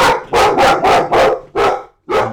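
A dog barks loudly and rapidly, about six sharp barks in quick succession with a brief pause before the last one, no talking.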